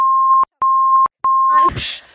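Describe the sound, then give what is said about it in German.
A steady mid-pitched censor bleep sounds in three loud, evenly spaced bursts with short gaps between them, followed by a brief scrap of noisy voice. “Das muss piepen. ich rauspiepsen.”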